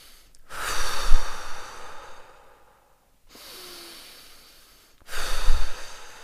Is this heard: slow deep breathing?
yes